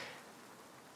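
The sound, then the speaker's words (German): A steady, dense hiss of a heavy cloudburst pouring down in the Strausberger Stadtforst forest at 18:42 as the sky darkens, constant, with a fine crackle of countless drops and no voices. “Wir haben jetzt mit einem furchtbaren Wolkenbruch zu kämpfen.”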